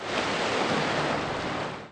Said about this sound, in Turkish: Gece saatlerinde Marmara ve Ege'de beklenen lodos etkisini gösterdi. Kuvvetli lodos denizde dev dalgalar oluşturdu.